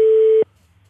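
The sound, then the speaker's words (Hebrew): A telephone ringback tone, heard while calling the phone of Knesset member Jamal Zahalka, sounds as one steady, fairly loud electronic beep lasting under half a second, then cuts off to a near-silent line with a faint low hum. “השיחה מועברת למענה הקולי.”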